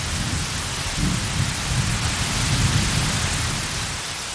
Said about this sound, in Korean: 빗소리 때문에 내 목소리가 전혀 닿지 않는 것 같았다.